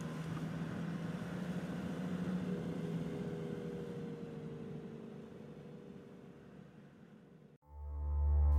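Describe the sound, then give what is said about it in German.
A car, the only vehicle around, drives steadily along the empty road to the airport in the morning after night rain, its low engine drone and road rumble continuous and fairly loud for several seconds before cutting off abruptly as a deep tonal sound begins. “Junge Männer am Straßenrand blicken misstrauisch auf das Auto, in dem ich sitze, das einzige Fahrzeug weit und breit.”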